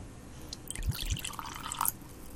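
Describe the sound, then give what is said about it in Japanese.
Gin and tonic is poured into a glass without ice, with a couple of low glugs followed by a soft fizzing trickle of liquid. No voices. “今日はね、ちょっとコーヒー、コーヒーじゃないや、氷持ってきてないんだけど、今日もジントニック飲もう。”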